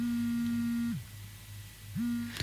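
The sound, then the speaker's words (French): A steady, low mechanical buzz from a vibrator drones for about a second, cuts out, then starts up again, sounding thin as it plays through a small phone speaker. “on entend vaguement un bruit de vibromasseur.”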